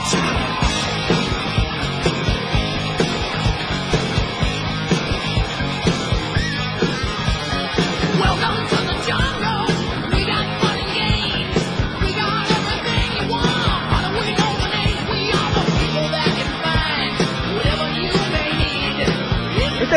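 A hard rock song plays loud and dense throughout, with driving drums, heavy distorted guitars and shouted, yelling vocals keeping a steady, relentless rhythm from start to finish.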